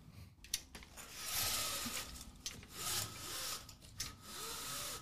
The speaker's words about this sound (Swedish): Så här blinds mm. heter det på engelska. Closing window blinds.